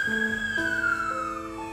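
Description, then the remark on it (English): Emergency vehicle sirens wail loudly and continuously, one tone sliding slowly downward while other steady siren tones overlap beneath it, with no voices. “When she hears sirens like that, she sends out a prayer to her daughter Avielle.”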